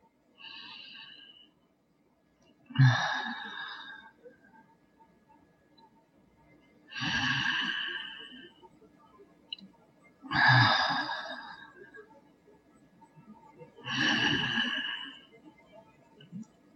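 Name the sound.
deep breathing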